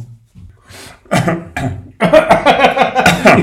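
A few short, harsh coughs break out, then build into a longer, dense fit of rapid coughing that runs to the end, with no one speaking.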